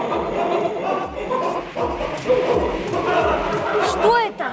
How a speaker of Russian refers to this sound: Летающие собаки, они вертят хвостом, как пропеллером, потому и держатся в воздухе. И лают, лают, как сто тысяч бешеных собак. Мощная акустическая атака.